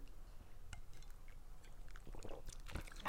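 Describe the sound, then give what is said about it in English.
Quiet sips of a For the Girls Martini: soft wet slurps and small mouth and liquid sounds over a few seconds, with a louder swallow-like burst at the end and no talking. “We all have tried this already, so but we're gonna take a sip and pretend it's the first time.”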